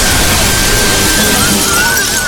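A loud crash of shattering glass fills the whole moment, a dense, noisy burst of breaking shards that stays harsh and sustained, with a thin ringing tone running through it, as a giant worm crashes through the glass on the second story of the biohedron.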